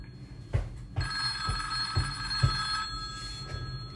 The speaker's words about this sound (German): Wartet mal kurz. Ah, Telefon.